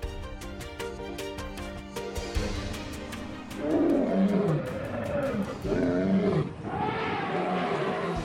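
Savanna wildlife ambience: a steady, rhythmic chirping and ticking of insects and birds gives way to several loud, deep roars that rise and fall in repeated bursts.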